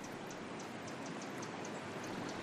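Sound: river water flowing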